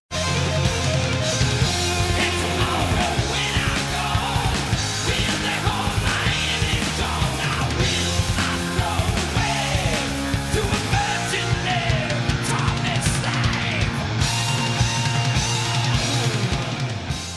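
Loud, dense heavy metal music plays throughout, with thick distorted guitars, steady pounding drums and shouted vocals riding on top, never letting up, with no one talking over it.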